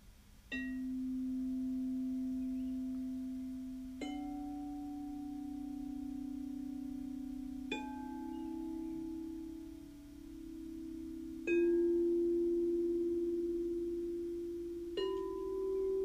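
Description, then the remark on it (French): Crystal singing bowls struck five times at a slow, steady pace, each giving a soft attack and a long, pure, low hum that sustains and blends with the next. No voices. “Passons maintenant à l'écoute des bols sonores, bols de cristal.”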